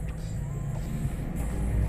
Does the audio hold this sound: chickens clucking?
no